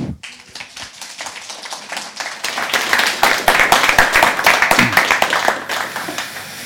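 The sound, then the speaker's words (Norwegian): Warm audience applause for the author of the book 'Folket, det er meg', on the growth of European right-wing populism, with many hands clapping in a dense, steady patter that swells after the first couple of seconds and stays fairly loud before tapering slightly at the end. “Så gi en varm applaus for Simen Ekern.”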